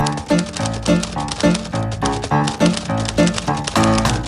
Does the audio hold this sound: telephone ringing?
no